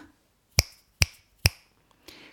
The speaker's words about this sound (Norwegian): Knipsing, eller et knips med fingrene. Snap på engelsk.